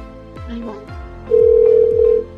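The ringback tone of an outgoing phone call placed by Radio Caritas Voz al Corazón sounds once, a steady, loud mid-pitched beep lasting about a second, over a quiet rhythm of soft thumping beats.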